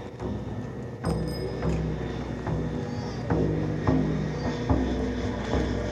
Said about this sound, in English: The sound of the airplane.